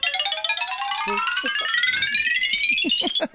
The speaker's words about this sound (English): Just yeah, play the play the the the xylophone running sounds